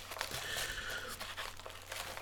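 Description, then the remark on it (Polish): Crackly rustling of paper packaging from a portable mobile router's box being crinkled and handled, with irregular bursts of crunching and a sharper crackle near the end, no voices present. “Ja tutaj odłożę te papierki.”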